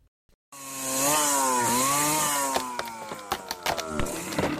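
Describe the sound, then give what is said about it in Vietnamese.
A chainsaw felling trees in a forest roars loudly, its engine pitch rising and dipping as it bites into wood, with sharp cracks and crunching toward the end as the cut goes through. “Những cánh rừng bị bốn hạ”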